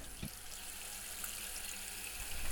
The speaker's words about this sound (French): Mets les poulets dans la marmite et mets de l'eau dessus.